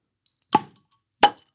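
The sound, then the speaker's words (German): Two bottles of Zwickel Kellerbier pop open one after the other, each a crisp hiss-pop with a short fizzy tail, separated by a brief silent gap. “Naja, wir können ja wirklich, wir machen es mal auf.”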